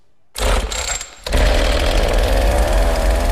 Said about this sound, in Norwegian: Noen få ganger får man også lov til å meske seg med ei motorsag, og det er latterlig effektivt og fryktelig moro.